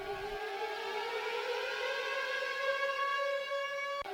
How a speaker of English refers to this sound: Those sirens mean that we're going to do Sagan Watch, where I give you an update on what Peter Sagan is up to.